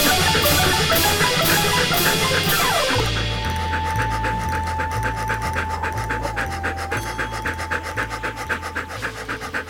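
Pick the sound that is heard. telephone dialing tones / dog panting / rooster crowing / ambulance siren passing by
dog panting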